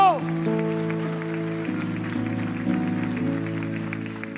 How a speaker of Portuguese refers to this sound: Aplauda o Senhor por essa palavra.